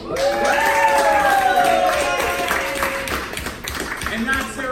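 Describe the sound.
An audience applauds steadily for several seconds, welcoming a special guest, the dense clapping mixed with whoops and cheering voices rising above it, loud throughout.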